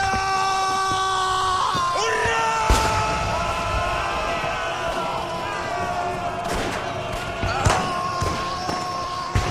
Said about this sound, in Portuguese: Um alemão corre gritando em direção da estrela. Vai perfurá-la com uma faca.